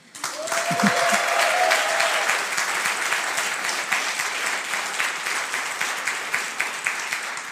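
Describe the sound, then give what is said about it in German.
A live audience, asked to make noise at a live recording, bursts into loud, sustained applause with dense clapping, and a brief whistle or whoop cuts through near the start before the clapping gradually thins out. “Es handelt sich um einen Live-Podcast und damit die Menschen, die diesen Podcast dann nachträglich hören, uns das auch glauben, würde ich Sie bitten, mal ordentlich Radau zu machen, damit man auch merkt, die sitzen nicht in einem trockenen Studio.”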